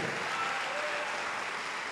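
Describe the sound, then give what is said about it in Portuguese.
An audience claps to applaud the word of God during a sermon, the dense applause holding at an even, fairly loud level for the whole stretch with no voices standing out. “Se você tem ouvidos, aplauda a palavra de Deus.”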